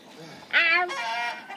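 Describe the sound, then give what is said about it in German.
A single hen lets out a loud, squawking cluck that trails off into a softer drawn-out call, with no voices in between. “Also ich gehe jetzt raus und sammle die Hühner wieder ein.”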